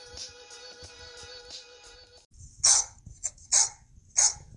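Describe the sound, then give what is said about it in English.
A dog barks three or four times in quick, uneven bursts, loud, after a few seconds of a steady droning tone. “What's that, girl?”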